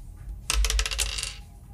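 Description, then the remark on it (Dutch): A die is tossed onto a hard surface and clatters for under a second in a quick series of sharp clicks that fade as it settles, landing on four. No one speaks. “Nou, de dobbelsteen is, eh, is er klaar voor.”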